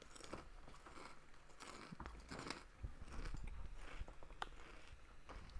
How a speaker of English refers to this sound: You're definitely gonna catch these crunches in the audio.